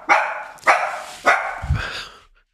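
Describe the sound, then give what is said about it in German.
A dog barks three times in an even rhythm, each sharp bark fading out, followed by a softer low grumble and a final trailing bark; no talking. “Das ist das verrückt, ist weil durch das, durch das Mikro, ich muss das jetzt mal kurz einmal sagen, mit den Kopfhörern, wenn bei einem von uns bellt, muss man echt, also ich, das Bellen”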